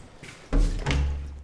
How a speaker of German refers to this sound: So, Tür gleich wieder hinter mir zumachen. Ähm, denn mein Arbeitszimmer ist tatsächlich getrennt von meiner Wohnung.